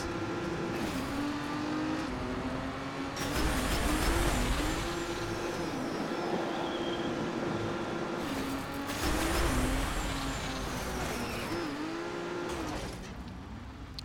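A racing car engine in a racing video game hums steadily with rising and dropping pitch as the driver revs and briefly lifts off the throttle, broken by two louder bursts of braking and tire noise, with no talking.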